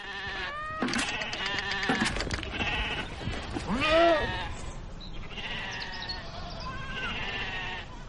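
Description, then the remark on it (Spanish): A group of meat goats, raised beside the Yellowstone River, bleating in overlapping, wavering calls, one loud quavering bleat standing out midway, with further cries continuing throughout and no voices. “Lo que hacemos es criar cabras de carne.”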